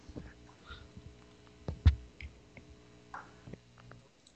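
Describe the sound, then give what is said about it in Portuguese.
Faint, irregular keyboard clicks as people type, tapping out at uneven intervals, a few sharper keystrokes standing out over a low, steady background hum, heard over a Skype call. “Porque dá pra escutar até o pessoal digitando aqui.”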